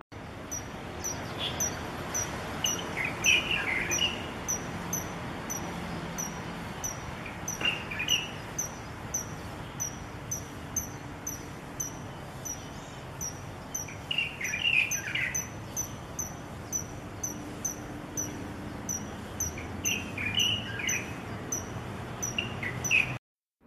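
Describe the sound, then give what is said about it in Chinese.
A Taiwan kingfisher gives short, sharp high-pitched calls in a few scattered bursts at Zhishan Park in Shilin District, Taipei, over a steady background of rapid, even insect chirping that runs throughout. No one speaks. “那我们可以听一下台湾翠鸟在士林至善公园的叫声。”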